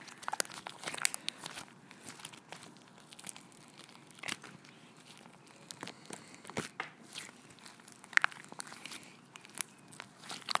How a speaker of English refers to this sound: So I am going to take out a new slime that I was actually saving for next week. Um, but I'm going to do it anyway. Uh, this is my, um, my clay slime. If you can hear that, so satisfying.